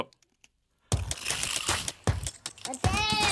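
After a near-silent start, tape is pulled from a dispenser over clattering toy cars in three loud, close bursts, with a shrill rising tone at the end.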